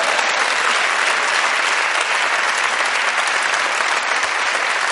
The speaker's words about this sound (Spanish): Te voy a coartar yo aquí el aplauso, hombre, con lo bien que me viene.